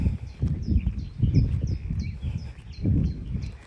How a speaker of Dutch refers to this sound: Zoals je hoort loop ik nog. Want daar loopt een, eh, een clubje achter me met paarden en die liepen zo te kletsen. ik ben even aan het kijken welke kant ze op hmm, ze stoppen.